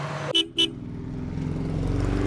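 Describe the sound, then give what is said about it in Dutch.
Two quick horn toots, then a low engine rumble that steadily swells as a woman drives up in a golden car. No one speaks. “Hé, hey, daar komt een mevrouw aan rijden in een gouden auto.”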